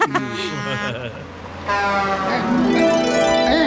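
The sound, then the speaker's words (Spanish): A car's horn honks in a loud, steady, buzzy blast lasting a couple of seconds, following a moment of people talking with warbling vocal sounds. “Sí sirve el pito. Mi esposa me dice que no sirve. el del carro.”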